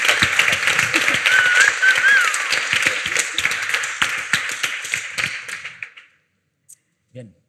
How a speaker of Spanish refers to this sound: Un aplauso para todos.